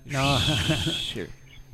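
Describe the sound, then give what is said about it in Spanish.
A shrill, sustained whistle over a wavering hooting voice, like a voice imitating a crowd whistling and jeering at a penalty taker as he approaches the penalty spot, lasting about a second before cutting off into quiet. “a medida que se acerca al punto penal, tranquilo, eh, tranquilo. Lo, chiflan.”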